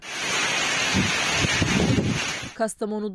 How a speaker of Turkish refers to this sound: ise sağanak yağış ve fırtına etkiliydi. Meteoroloji Genel Müdürlüğü Kastamonu için kuvvetli sağanak ve fırtına uyarısında bulunmuştu.